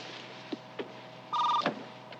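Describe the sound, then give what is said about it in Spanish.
Short electronic telephone tones from a computer modem dialing numbers in Sanibal, California, searching for other computers: a few faint clicks, then a brief loud burst of paired dial-like tones, followed by another click over a steady line hum. No one speaks. “Y ahora mi ordenador está buscando computadoras en Sanibal, California. Contestan con un zumbido que las demás computadoras reconocen.”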